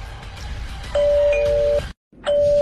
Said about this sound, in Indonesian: Untuk kesekian kalinya, bel itu berbunyi lagi.